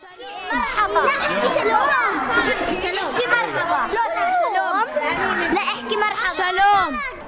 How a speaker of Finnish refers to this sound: Tällainen iloinen arabian ja hebreankielinen puheensorina on harvinaista kuultavaa. Sellaista voi kuitenkin kuulla Jerusalemissa koulussa,